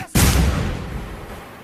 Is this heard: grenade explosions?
yes